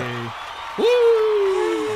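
A canned applause effect played from an applause button: steady hiss-like clapping from a crowd, joined partway through by a loud, sliding whistle or whoop that rises sharply, then holds and slowly falls to the end.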